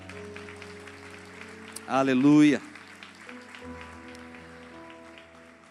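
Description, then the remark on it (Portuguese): A church audience claps steadily for the Lord over sustained organ-like chords, with a voice calling out loudly for a moment midway before the clapping carries on under the music. “Aplauda ao Senhor.”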